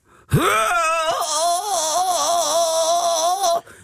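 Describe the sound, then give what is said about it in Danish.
A voice imitates people moaning at a yoga class: a long, loud moan drawn out for about three seconds with a wavering, quivering pitch, with no talking. “jeg har jo også været til yogatimer, hvor folk altså stønnede, som om det lød, som om de blev klippet, altså fuldstændig sønder øh.”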